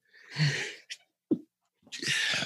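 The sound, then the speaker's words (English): Two sharp, loud sneezes, each a burst of breathy hiss, separated by a brief pause with a short gasp between them, no talking. “Bless you.”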